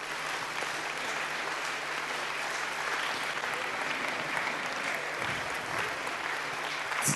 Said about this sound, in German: Darf ich die Dozenten und Dozentinnen noch alle dazu bitten? Darf ich das schon mal geben? Oder ich muss so Ja, gebt ihnen mal einen Applaus. Danke.